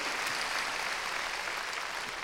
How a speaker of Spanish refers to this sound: Démosle palmas fuertes a nuestro Señor. Gloria a Dios.